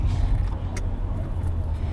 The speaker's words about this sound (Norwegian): Vi kjører nordvestover fra Fagernes og oppover Øystre Slire i retning Beitostølen.